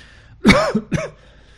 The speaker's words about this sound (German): kommt mir schon so ein kleiner Huster wieder raus.